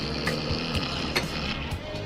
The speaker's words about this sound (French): Le bruitage de l'hélicoptère